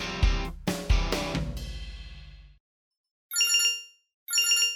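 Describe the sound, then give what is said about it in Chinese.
A phone watch on the team captain's wrist rings: two short bursts of bright, trilling electronic ringtone separated by a brief silence, following a few ringing musical chords that fade out. No one speaks. “队长琪琪手腕上的电话手表响了起来。”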